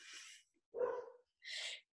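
A dog in the background barks three times in quick succession, short and faint, with brief silent gaps between the barks and no voices present.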